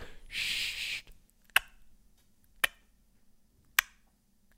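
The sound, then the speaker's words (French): A horse makes a breathy, snorting blow lasting about a second, then three sharp, dry clops spaced roughly a second apart, fairly loud, with no talking. “C'est vous qui faites ce bruit-là Mais vous êtes venu avec votre cheval Oui, c'est pour pouvoir fuir au cas Mais ça fait un bruit d'incroyable”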